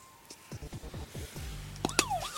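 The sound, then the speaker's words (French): A quiz game buzzer sounds as a contestant buzzes in: a rapid run of short, falling electronic blips, then a steady low buzz and a sharp warbling tone, loud, with no talking. “Il faut buzzer, monsieur. Déjà, on buzz.”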